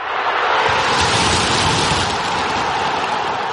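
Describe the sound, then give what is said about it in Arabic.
A dense, loud roar from a large football stadium crowd cheering after their team scores a goal in the 90th minute, a steady wall of voices that holds at full intensity for a few seconds without pause. “في اصوات كلنا نحبها مثل جمهور فريقك بعد ما يجيب الجول بالدقيقة 90”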